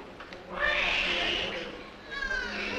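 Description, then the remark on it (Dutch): A newborn baby cries in thin, high-pitched wails, one drawn-out cry followed by a second rising one after a brief pause, fairly loud over a low background murmur. “The baby cried at 20 seconds.”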